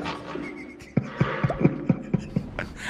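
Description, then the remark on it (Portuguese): A recorded fart echoing in a porcelain bowl, a sputtering run of about eight low, evenly spaced pops over a second or so, over a faint steady hiss with no talking. “O peido é, o tava peido, uma bacia. Peido, é o peido da porcelana, é o eco da porcelana.”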